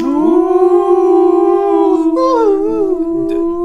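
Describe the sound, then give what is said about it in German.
A single long wolf howl holds a steady, sustained tone with rich harmonics, then wavers and dips slightly near the end. It's loud, with no talking. “Äh, Wolf übrigens.”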